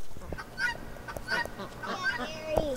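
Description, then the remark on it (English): A guinea fowl on a family farm calls loudly and harshly, about four raspy, honking cries repeated at a steady pace, with faint outdoor background noise. “That's the guinea again.”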